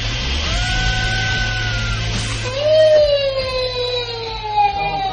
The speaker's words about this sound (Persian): فکر میکنید صدایی که میشنوید مربوط به چیه به نظر میرسه فردی فریاد میزنه و به کمک احتیاج داره اما نه این فرد داره تفریح میکنه اون هم با آویزون شدن از یک ارتفاع فوق العاده بلند در اندونزی البته فقط به وسیله یک تناب تفریحی که هزینه بسیار زیادی رو هم داره